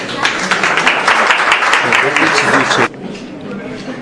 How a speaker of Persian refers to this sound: و اصلا بحثی نیست که من بخوام اینجا در مورد صحبت کنم تشویقش کنید لطفا